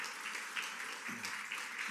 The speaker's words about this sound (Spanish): Den un fuerte aplauso al Rey de la Gloria.